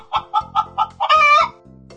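A chicken clucks five times in a quick, even rhythm, then lets out a longer, drawn-out squawk. The sound is loud, with no talking.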